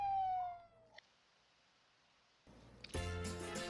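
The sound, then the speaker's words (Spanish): An ambulance siren wails briefly with a falling pitch and cuts off, followed by a near-silent pause, then a loud, dense burst of tonal sound near the end. “Y si bien el rumbo de la ambulancia era incierto”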